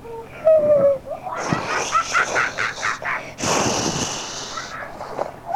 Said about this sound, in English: Today's adventure in the jungle. Yes, that's a monkey, my friends.